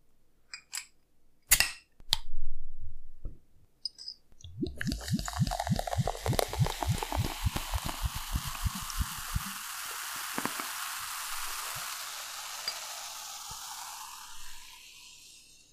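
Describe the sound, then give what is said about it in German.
A few sharp clicks and a pop as a small glass bottle of an elderflower-scented herbal drink is opened, followed by a steady fizzing hiss of the carbonated drink that bubbles loudly, then gradually settles into a softer sizzle. “Und das habe ich letztens halt in der Glasflasche gesehen, dachte mir, klein, handlich, Glas, geil, mitnehmen.”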